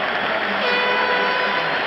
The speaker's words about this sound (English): There's a line drive in the right. There it is! There it is! There it is! Listen to this crowd. A standing ovation. A standing ovation. 50,000 people.